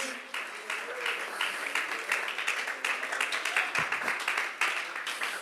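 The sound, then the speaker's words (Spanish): An audience breaks into sustained applause for the presence of God, a dense crackle of many hands clapping steadily at an even loudness with a faint murmur of voices underneath. “Alguien aplaude la presencia de Dios.”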